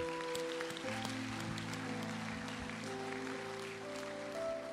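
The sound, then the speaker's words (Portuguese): An audience claps for God together in a steady, dense wash of applause, with sustained keyboard or organ tones holding underneath throughout. “Aplaude o teu Deus, aplaude.”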